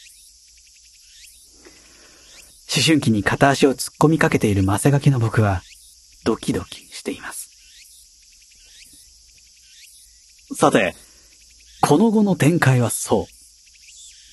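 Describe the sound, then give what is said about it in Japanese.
Cicadas drone in a steady, shrill summer chorus that never lets up, running beneath a man's voice speaking in short bursts with quiet pauses between. “で、どうするお姉さんと、セミの声しか聞こえない。”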